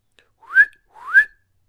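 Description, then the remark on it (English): Two short, rising whistles in quick succession, each sweeping upward in pitch before cutting off, evenly spaced and clear against silence, whistled by the story character Hanukkah Harry. “And he whistled twice”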